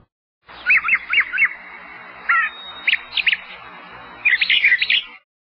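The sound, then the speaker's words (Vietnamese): Doves call in short bursts of bright notes, several quick phrases spaced apart over a soft outdoor hush in a wild, gloomy forest, heard faintly from afar, with no one talking. “ngồi giữa gốc cây mà ăn, ngó rừng hoang âm u, nghe cu kêu văng vẳng.”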